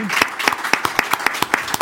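An audience applauds loudly in thanks, with sharp claps landing in a steady, regular rhythm over a continuous wash of crowd clapping.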